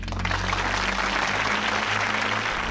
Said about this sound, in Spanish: Bimba, que prometiste no poner más aplausos. Discúlpeme, no he podido evitarlo.